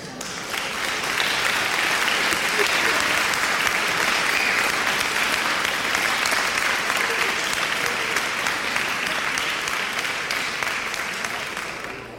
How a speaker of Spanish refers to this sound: Está con nosotros el doctor en ciencias antropológicas por la UAM, Emanuel Nájera de León, para quien pido sus amables aplausos.